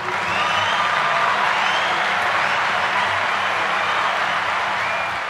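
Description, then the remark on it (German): Sustained applause from a crowd, dense and steady clapping filling the room for several seconds without pause, fairly loud, with no voices standing out. “So, den Applaus lassen wir jetzt 10, 20 Minuten lang andauern.”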